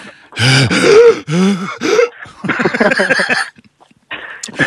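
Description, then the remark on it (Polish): A person loudly imitates the heavy, labored panting of someone running, a run of rough gasping breaths in quick uneven bursts with brief pauses between them. “ty biegniesz, rozmawiasz, rozumiesz i nie sapiesz”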